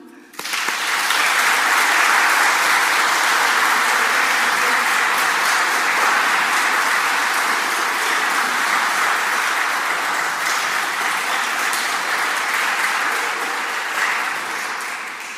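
Sustained audience applause, a dense crackle of many hands clapping that starts abruptly and holds steady and loud for about fifteen seconds before easing slightly at the end.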